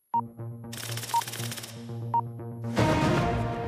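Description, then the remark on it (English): The opening theme of a 6 o'clock news bulletin, built on clattering typewriter or telex keys: rapid mechanical tapping over a steady droning music bed, punctuated by short high beeps, then swelling into a louder full burst. No one speaks. “the clattering typewriter or telex machine noise that fires up the Newshub at 6 music”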